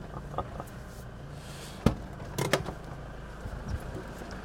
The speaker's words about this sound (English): just gone out to uh, close the uh, the big hangar doors to his shed.